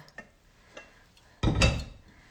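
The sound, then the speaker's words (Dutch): A few faint clinks of crockery, then a short, fairly loud rush of tea being poured into a cup for about half a second before it trails off. No one speaks. “Ik ga nog een theetje inschenken.”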